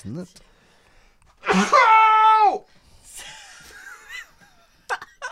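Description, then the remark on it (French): A voice mimics the pained cry a character gave when a blow landed: one loud, strained, nasal yell lasting about a second and tailing off, followed by quieter murmuring vocal sounds and a few short breaths. “C'est le cri qu'il a fait quand ça, a rentré.”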